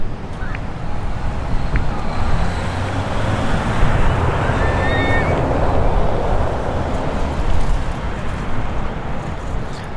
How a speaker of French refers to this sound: vous pouvez l'entendre au-dessus de moi, il y a euh, des avions qui passent en permanence.